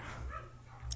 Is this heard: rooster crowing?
no